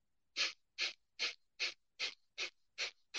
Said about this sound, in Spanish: vamos a hablar de respiración de fuego por la nariz